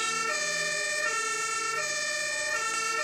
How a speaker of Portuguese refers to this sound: Quando você tá, tipo, pegando o celular para mandar a mensagem você ouve muita sirene, muito caminhão de bombeiro passando.